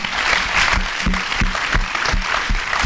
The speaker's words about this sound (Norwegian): Eh, men da vil jeg bare be om en stor applaus til alle fire.